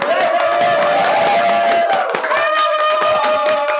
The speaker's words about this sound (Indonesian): Tepuk tangan dong, nonton!